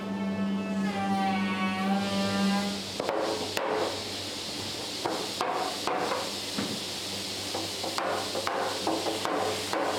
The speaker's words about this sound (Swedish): Mats Andersson står med en stor hammare och slår med kraftiga slag ner ringarna av stålband runt ekstavarna som är uppvärmda för att vara böjliga. Det kallas att driva och i processen pressas stavarna tätt, tätt mot varandra